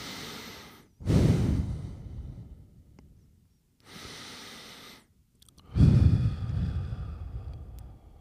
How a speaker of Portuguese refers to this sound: Fecha os olhos? Yeah. Ok. Agora dá-me três respirações profundas.